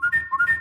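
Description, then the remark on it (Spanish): A short, high whine from an electric car insured by Línea Directa: a thin, steady tone that shifts pitch slightly, over a soft low rumble that swells and fades twice. No one speaks. “Y un coche eléctrico asegurado por línea directa, así.”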